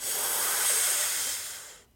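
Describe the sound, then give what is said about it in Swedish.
A sharp, steady hiss of air drawn in through clenched teeth with the tongue held against the inside of the teeth, demonstrating a breathing technique, fairly loud, lasting almost two seconds before cutting off abruptly. “Byta ihop, andas in.”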